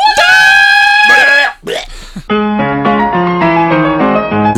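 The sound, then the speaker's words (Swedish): A loud, piercing power metal style scream holds a high sustained note for over a second, then breaks off into a short rough burst before a stepping melodic passage follows. “Power metal-skrik!”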